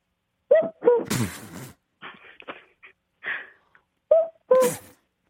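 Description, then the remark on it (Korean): A person imitates a cuckoo call as a light first impression: two short two-note hoots, a breathy burst and soft murmurs in the gap, then another two-note call, fairly loud. “어, 일단 첫 번째 가볍게 그냥 뻐꾸기 소리.”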